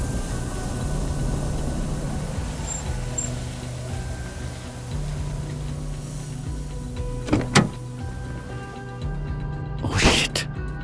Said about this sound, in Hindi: लेकिन जंगल के करीब पहुंचते ही उसकी गाड़ी का टायर अचानक पंचर हो गया